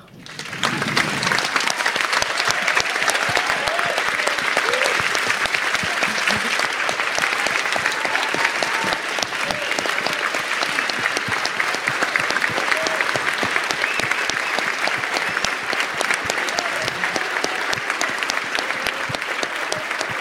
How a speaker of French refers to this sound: on, on, est très heureux et on vous demande euh, d'applaudir très chaleureusement cet immense cinéaste qui fait l'honneur d'être avec nous cet après-midi, John Carpenter.